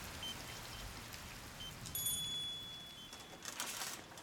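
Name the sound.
rain falling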